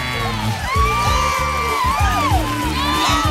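A loud crowd of fans cheers a performer's arrival, whooping and yelling continuously, with rising and falling shouts over a steady rhythmic thumping underneath for the whole few seconds.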